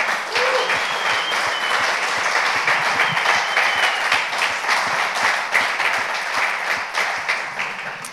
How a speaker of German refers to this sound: Also lasst uns noch einen Applaus geben an die Pastoren, bitte.